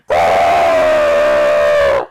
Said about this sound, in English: I think I heard someone scream in frustration.